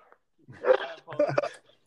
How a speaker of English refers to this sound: Your dog loved it, man. He was excited about it. She's, yeah, she loves track and field, and so when you get to talking about this level of it, she's crazy.